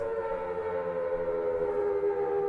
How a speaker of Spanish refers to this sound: Sonaba como los últimos gemidos de un titán agonizante, un inquietante portento de lo que se aproxima. No importa cuántas veces las oiga, nunca me acostumbraré a las sirenas de tornado.